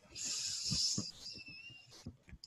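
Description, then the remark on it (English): A long, airy inhale from many people breathing in together, a steady hiss lasting about two seconds before tapering off, with faint low thumps in the background. “And again, breathing in together.”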